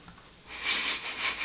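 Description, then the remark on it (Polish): A soft, airy sneeze: a quiet lead-in breath, then two hissing, breathy bursts in quick succession, fairly faint, with no talking around it. “Na zdrowie.”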